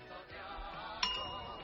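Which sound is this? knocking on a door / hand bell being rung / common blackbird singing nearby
hand bell being rung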